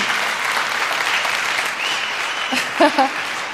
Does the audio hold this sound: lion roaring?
no